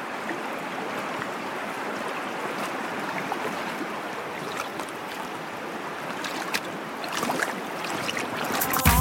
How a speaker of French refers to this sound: On va laisser tout simplement la rivière s'exprimer jusqu'à la pub